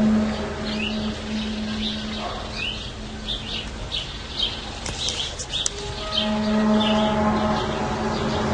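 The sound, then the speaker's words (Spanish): Small birds chirp and tweet repeatedly, their calls scattered over a steady outdoor hum and a low sustained drone, like a faint horn or siren, in the background. “Capaz que también se están escuchando el ruido de los pájaros y todo eso, pero detrás”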